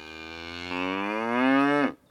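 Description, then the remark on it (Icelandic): A single long, loud cow moo, rising slightly in pitch and swelling before cutting off abruptly, with no talking; the cow lows from beneath the listener's feet, below high cliffs. “Þá heyrir hann að kýrin baular undir fótum sér.”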